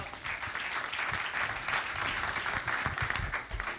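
A crowd applauds steadily, a dense wash of many hands clapping at once that stays fairly even in loudness for a few seconds, with no voices standing out.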